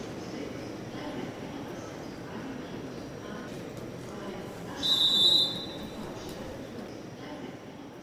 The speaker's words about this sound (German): Meine Damen und Herren am Gleis 9, bitte steigen Sie ein. Vorsicht an den Türen und bei der Abfahrt des Zuges.